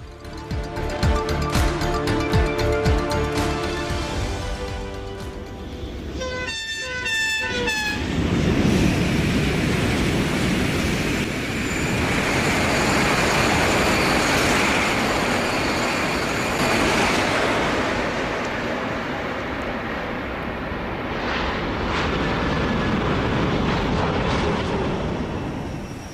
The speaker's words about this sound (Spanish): El sonido que están escuchando es el del AVE, un sonido, el del tren de alta velocidad, que desde hoy se va a poder escuchar también en Asturias, porque hoy, 29 de noviembre de 2023, se inaugura la variante de Pajares de la línea de alta velocidad